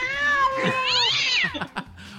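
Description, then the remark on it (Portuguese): Several cats meow and wail at once, overlapping harmonic cries rising and falling, fairly loud, then trailing off into a few short sharp calls. “É, pode, é, só pode ser, só pode vários ser. gatos à nossa volta, né”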